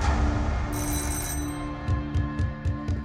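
A doorbell rings insistently, a sustained metallic trill that repeats in quick rhythmic bursts over a low hum, with no voices; police are ringing at a man's door early in the morning.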